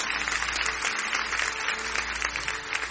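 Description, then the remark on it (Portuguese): A church audience claps steadily and densely for a few seconds in praise of God, a sustained wash of many hands applauding together, with no voices standing out. “palmas a esse Deus.”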